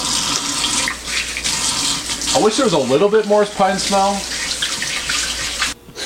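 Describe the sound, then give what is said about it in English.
Shower water runs in a steady hiss for several seconds as soap lather is rinsed off, while a man speaks briefly over it, then the flow changes abruptly near the end. “All right, so the shower is done, and I'm gonna smell my skin here.”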